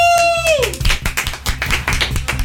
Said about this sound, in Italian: quanto è poco radiofonico farci gli applausi da soli. Eh, beh, ma se gli effetti non partono, bisogna farli noi.